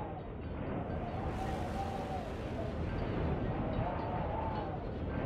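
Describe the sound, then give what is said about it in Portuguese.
A deep, continuous rumbling roar of shifting sand churned by a sandstorm in a desert, steady and loud throughout, with a faint whistling wind wavering above the dense low grinding. “E vocês começam a escutar som de, de areia se remexendo.”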